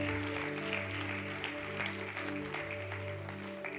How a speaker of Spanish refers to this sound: Date un fuerte aplauso a ti mismo porque sigues viviendo y experimentando cosas en esta tierra.